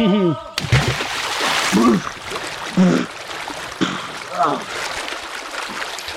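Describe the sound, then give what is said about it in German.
Steady rushing of flowing river water fills the whole stretch, with several short voiced utterances breaking in over it. “Mit mir auch im Fluss.”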